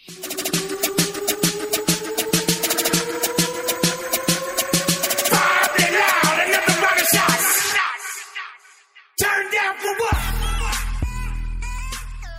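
An electronic dance track plays loudly with a steady pounding beat and a rising synth build-up, a brief near-silent break, then a heavy bass drop. No voices.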